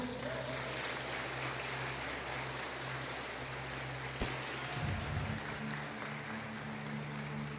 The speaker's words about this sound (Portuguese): Aplauda o Senhor Jesus.